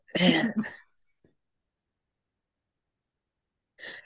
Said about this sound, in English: I thought she was burping. I did burp, but you know how sometimes you burp too much and it like it like come up a little bit, bitch. It was almost a fountain.